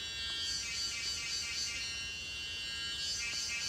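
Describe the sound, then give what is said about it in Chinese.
Cicadas in a tree drone in a steady, loud, high-pitched buzz that holds without a break for the whole stretch, a shrill insect chorus with a slight rasp and no voices over it, in early summer on a day without rain. “然后现在听到蝉叫，就觉得，哦，明天开始要变热天气了嘛。”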